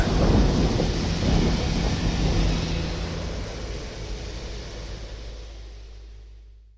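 thunder

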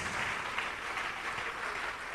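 audience applauding

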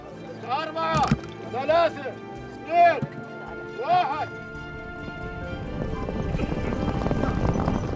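horses galloping

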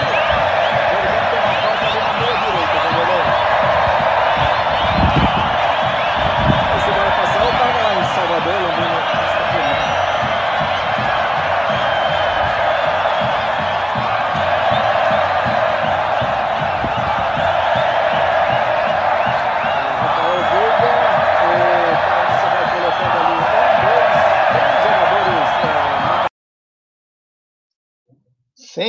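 football stadium crowd cheering

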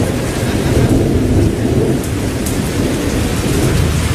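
heavy rain

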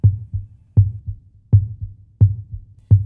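heart beating

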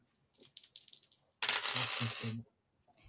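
dice being rolled

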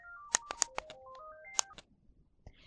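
telephone

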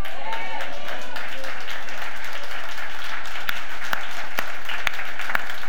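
audience applause

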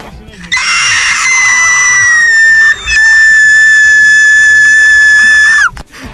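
man screaming loudly

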